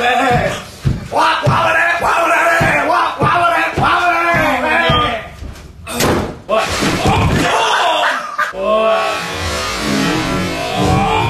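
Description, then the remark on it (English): Steady, rhythmic claps repeat at a brisk, even pace for several seconds, sharp, mixed with voices and music-like tones, before giving way to a wash of broader crowd noise. “Clap, clap, clap, clap, clap, clap, clap, clap, clap.”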